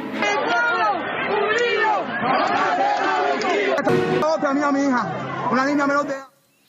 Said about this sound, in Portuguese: de repente as ruas se encheram de gente clamando por liberdade, pela pátria e pela vida.